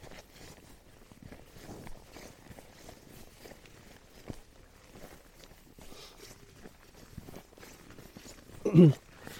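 Steady crunching footsteps trudge through snow at a walking pace, fairly soft, with a brief louder thump near the end and no one speaking.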